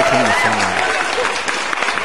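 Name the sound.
audience applause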